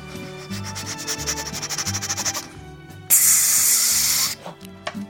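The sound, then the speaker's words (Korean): A girl-group member imitates a rice cooker releasing steam: a quick run of rhythmic breathy puffs, then a loud, sustained hiss and a few short trailing bursts, over soft background music. “걸그룹 최초 밥솥 모사.”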